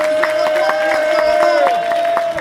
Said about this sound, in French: C'est avec ça, on les applaudit bien fort, plus que ça, ça pique pas,